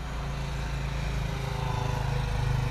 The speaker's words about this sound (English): A little motorcycle just cruising on by.